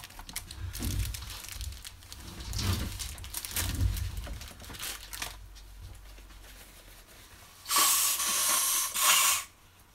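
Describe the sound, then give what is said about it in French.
Tissue rustles and crinkles for several seconds, then one loud, sustained nose blow from a person with a slight cold, a harsh breathy burst lasting about two seconds before falling quiet. “Je sais, je suis désolé, je suis un peu enrhumé. Alors je vais les moucher.”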